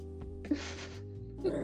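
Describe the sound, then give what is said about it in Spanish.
Dogs fighting, one a Rottweiler: two bursts of harsh, breathy snarling and huffing, the first about half a second long and the second shorter, over a steady background hum. “Mis perros, güey.”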